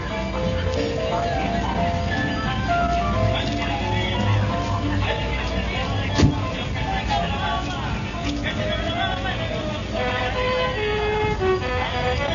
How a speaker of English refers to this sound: I want to get these horns and everything. I want to get this insane noise out here. Blow the oh, horn.